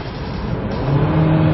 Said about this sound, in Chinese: 不过刚才你们也听到了，当发动机转速比较高的时候